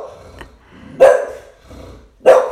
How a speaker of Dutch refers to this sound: Mijn hondje moest even blaffen. die vindt het, eh, mijn hondje vindt het trouwens prima. Die kan, die kan wel goed voor zichzelf eh, opkomen, zoals je hoort.